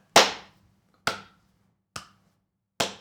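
Four sharp, loud hand claps at a slow, steady pace, each a crisp smack with a short fading tail and silence between them. No voices.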